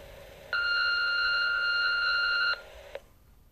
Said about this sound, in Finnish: Huonojen vanhempien tunnustuspuhelin. Lue tunnustuksesi nauhalle äänimerkin jälkeen.